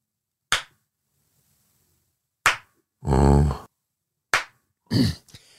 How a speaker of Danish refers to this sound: Men, men, men et slow clap er mere langsomt. Et slow clap. Sådan her.